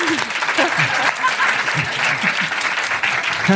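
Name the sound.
audience applause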